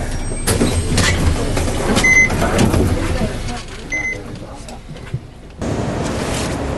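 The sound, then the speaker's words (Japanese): A bus engine rumbles, with a couple of short electronic beeps, before the noise briefly dips and then surges back as the bus pulls away from a bus stop in a Japanese housing estate after a passenger gets off, with faint voices in the background. “今、僕が乗ってきたバスは、団地のセンター地区が終点なんですが、途中のバス停で降りました。”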